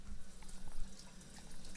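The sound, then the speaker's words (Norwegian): Water runs steadily from a tap, a continuous splashing hiss with no voices, lasting under two seconds. “Og mellom 7 og 8 dl vann.”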